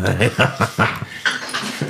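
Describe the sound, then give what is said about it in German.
A dog named Chewy pants and whimpers in quick, uneven bursts, short breathy huffs mixed with high, thin whines over about two seconds. “meinem Hund Chewy.”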